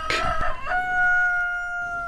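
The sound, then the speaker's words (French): A young rooster crows once, fairly loud: a harsh opening burst that settles into a long, drawn-out tone before fading. No voices accompany it. “Le cocher, avec un T à la fin, désigne un jeune coq.”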